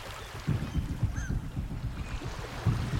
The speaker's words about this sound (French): Le bruit d'une mouette, les bateaux, le clapotis des vagues sur la coque.